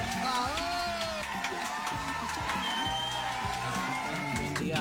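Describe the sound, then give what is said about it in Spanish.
A crowd breaks into steady applause mixed with cheers and a few high whoops, welcoming a guest to the show Casi Millennials, a dense and lively burst of clapping that carries on for the whole moment. “Con este aplauso lo recibimos a él”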